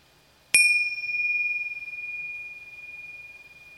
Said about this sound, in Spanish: cuando escuches el sonido de las campanillas, puedes ir llevando la atención hacia la respiración